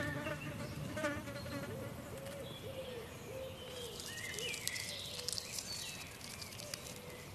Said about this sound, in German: Du wirst bemerken, dass wir jetzt umgeben sind von einer unglaublichen Fülle und Dichte an Geräuschen, Klängen, Tönen. Wir sind umgeben von einer Waldsinfonie.